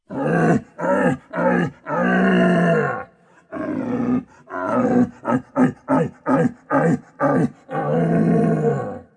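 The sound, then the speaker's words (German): Two rival rutting red deer stags roar loudly at a rutting ground, each trying to drive the other off by sound: long, deep, groaning bellows, then a rapid run of short grunting calls, ending with another drawn-out roar. No talking. “sich gegenseitig musternd und mit rollenden Lichtern aufgestellter Brumpfmähne umziehen sich die zwei Rivalen und jeder versucht den anderen akustisch vom Brumpfplatz zu treiben.”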